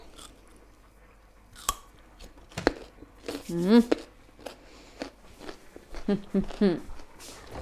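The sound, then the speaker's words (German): Crisp, crunchy bites into a raw carrot, followed by several chewing crunches in an irregular rhythm, with a brief murmur from a voice in between. “So, ich habe einmal kurz die Karotte abbeißen.”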